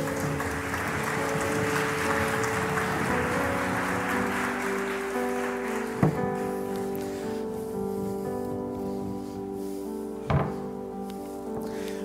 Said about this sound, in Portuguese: Faz uma salva de palmas para o pessoal da manutenção aí, por favor.